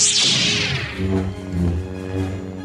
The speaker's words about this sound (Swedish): Och med tanke på att Ben Burt även var den som designade rösten för R2D2, ljudet av lightsabers